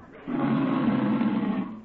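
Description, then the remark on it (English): A cow named Bossy, being milked, gives a single drawn-out, low-pitched moo, loud and steady for over a second before tapering off, heard on its own with no talking. “Well, does your cow give much milk?”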